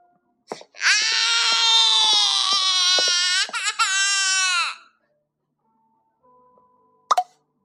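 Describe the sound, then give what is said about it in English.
A baby cries loudly in a long, sustained wail lasting several seconds, with a brief catch partway through and the pitch sliding down at the end. A short click comes before and after. “How baby cried.”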